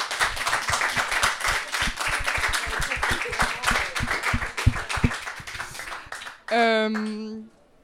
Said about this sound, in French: on peut vous applaudir quand même pour le travail que vous avez fait.